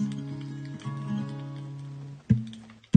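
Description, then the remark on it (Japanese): Sustained, ringing guitar notes fade out, then two sharp, loud knocks on the guitar body land a beat apart, the first letting a low tone ring briefly. No one speaks. “トントンって叩くの結構ね、やってます。”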